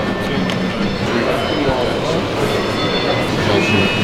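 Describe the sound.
A busy stock exchange trading floor full of overlapping voices and clatter, with thin electronic beeping tones, custom alerts traders set up to track market moves, cutting faintly through the steady crowd noise from start to finish.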